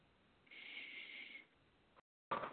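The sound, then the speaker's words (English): A single slow, deep breath, airy and steady for about a second, followed by a brief silence and another sharp burst of breath noise, as someone breathes deeply before starting a tapping exercise. “just breathing to start.”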